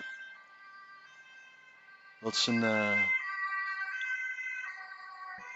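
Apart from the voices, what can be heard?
ambulance siren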